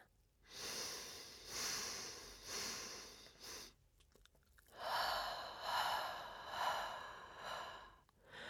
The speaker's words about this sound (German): Versuchen wir nun, unsere Atmung etwas zu verlangsamen. Ich begleite dich dabei. Wir atmen gemeinsam ein und zählen bis vier.